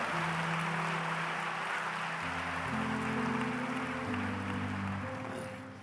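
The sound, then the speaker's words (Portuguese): A large crowd at a Christian worship service claps loudly and steadily for the Lord for several seconds, a dense wash of applause over sustained keyboard chords, tapering off slightly at the end. “glória a Deus, pode aplaudir o Senhor, aplauda forte, aplauda forte.”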